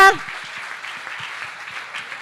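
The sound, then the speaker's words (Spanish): An audience breaks into applause: dense, steady clapping that holds at an even level for a couple of seconds, right after a brief vocal tone at the very start. “Así que si le va a dar un aplauso, aleluya.”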